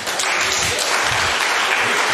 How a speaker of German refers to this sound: Können wir mal Jesus einen Applaus dafür geben?